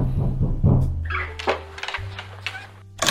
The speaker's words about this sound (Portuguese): Alguém bateu a porta.